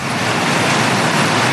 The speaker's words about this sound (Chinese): 前橋市の前橋放送局前です、えー、ただいま地面や車に氷が強く打ち付けていて氷の大きさはビー玉ぐらいです